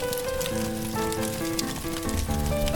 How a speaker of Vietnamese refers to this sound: ngọn lửa cứ tí tách reo vui chung quanh bếp luộc bánh trưng